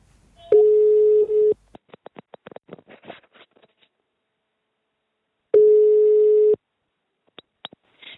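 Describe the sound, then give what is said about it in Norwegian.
A telephone ringback tone sounds twice as a call is placed to an anonymous source, each a steady one-second beep separated by a long pause, with faint clicks and ticks on the line in between and no one speaking. “Jeg ringte en anonym kilde.”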